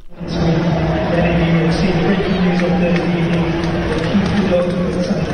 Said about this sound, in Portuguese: São aplausos envergonhados.